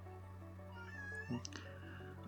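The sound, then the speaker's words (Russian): A cat lets out a drawn-out meow, rising then falling in pitch, over a steady low electrical hum, with no talking. “Спасибо, эм, кошка.”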